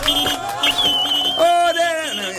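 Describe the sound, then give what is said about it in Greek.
A loud, brassy victory horn blares in sustained tones, its pitch shifting partway through, with a faint crowd-like murmur underneath. “Και παιδιά λέει πιο πολύ από όλα μα λένε ο ήχο τη νίκη με την κόρνα.”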